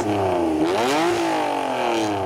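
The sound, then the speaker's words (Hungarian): An NSX sports car engine revs hard, its loud harmonic whine sweeping up in pitch, dipping briefly, then climbing again before settling into a steady high drone. No one speaks. “Egyszerűen ha annyit mondok, hogy ez a világnak jobb autójának a hangja, pedig le tudjuk hogy ez egy.”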